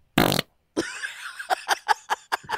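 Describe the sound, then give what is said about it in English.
A loud fart: a short, harsh blast, a brief pause, then a longer rasping stretch that breaks into a quick run of sputtering pops. “You're going to feel this fart in your mouth.”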